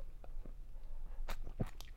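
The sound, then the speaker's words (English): Wet mouth sounds of someone gulping down the foam of a Flagstaff IPA from Lumberyard Brewing Company, a few quick swallows and slurpy bursts clustered toward the end, fairly quiet with no talking. “Good foam gulp there.”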